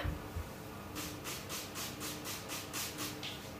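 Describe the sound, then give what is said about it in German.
A spray bottle mists Berliner doughnut dough in a quick, steady series of about nine short hissing squirts, fairly soft, with no talking. “Jetzt benebel ich erstmal noch mal ein bisschen meine Berliner.”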